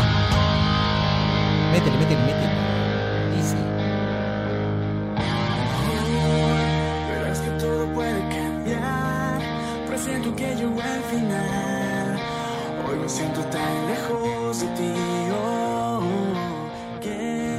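A full band song plays loudly and continuously, with sustained harmonic chords, a driving busy rhythm and slightly distorted tones; the arrangement shifts and thickens a few seconds in.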